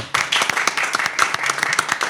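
Audience applause, a dense steady patter of many hands clapping at once, fairly loud and sustained without a break, with no voices heard over it.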